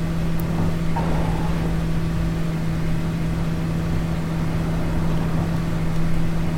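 A steady, buzzing engine drones without pause, its constant hum sounding like a small lawnmower motor powering a bus. Loud, with no talking.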